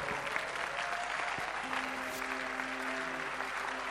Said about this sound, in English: Stand to your feet, everybody, and clap your hands for the Lord.